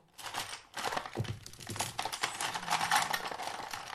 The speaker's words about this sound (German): Was genau soll das werden? Ich habe alle Stifte ausgepackt. Und ich weiß, wer sie wieder einpacken wird. Ich.